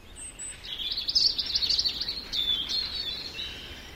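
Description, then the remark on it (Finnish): A male European robin sings a fluid, warbling phrase of high twittering notes and trills, clear against a quiet outdoor background. “Viikon luontoääni: Punarinta”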